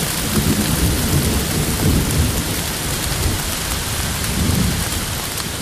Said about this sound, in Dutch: En al snel begint het eigenlijk immens hard te regenen. Maar echt zo hard dat, je, wij elkaar niet meer zouden zien. Dus, dus van meter afstand eigenlijk. Dus, dus eigenlijk bijna onder een waterval staat eigenlijk.